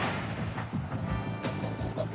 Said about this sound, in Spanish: Un miembro civil del grupo, Al Colvin, se refugió y se dispuso a disparar con su rifle.